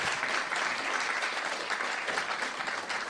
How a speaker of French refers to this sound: Un tonnerre d'applaudissements pour eux. Merci. Merci à vous.